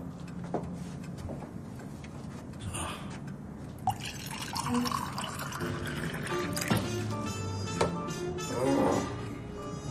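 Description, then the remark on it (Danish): Red wine pours into a glass with a steady gurgling trickle, its pitch rising as the glass fills. A few faint drips and clinks follow, with a low murmur in the background. “Det er et dejligt glas rødvin, og det er jo, som jeg har lært af min bror, Torben, som er hovmester eller skibskok.”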